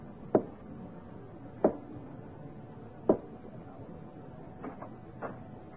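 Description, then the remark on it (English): Three soft, evenly spaced taps on a wooden bedroom door as a prearranged signal at about two in the morning, followed by two fainter taps, with no voices in the quiet background. “I went to Sir Henry's room and tapped softly our prearranged signal.”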